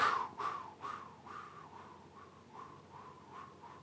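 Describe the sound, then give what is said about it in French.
A voice imitates a ventilation fan, making a droning hum that pulses with a steady tremolo, about eight regular beats that start louder and gradually soften, with no other sounds. “elle commence à avoir un trémolo comme ça, avoir un battement, elle devient beaucoup plus intéressante.”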